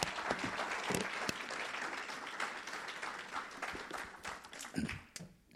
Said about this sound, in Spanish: Y el 5, y si le puedo dar un aplauso al Señor, no, si no está dormido.